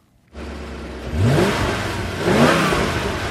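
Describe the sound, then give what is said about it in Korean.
A car engine starts up steady, then revs twice, rising in pitch around the middle and again near the end before settling back to a rumbling idle. “네, 자동차 지금 공회전하는 소리예요.”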